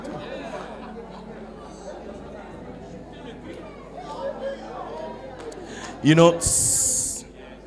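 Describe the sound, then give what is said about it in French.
An audience chatters and talks over itself in a steady, dense murmur of overlapping voices; near the end a brief rising squeal and a short, loud hissing burst cut through the babble. “vous, vous n'arrêtez pas de parler, je vais, je vais arrêter.”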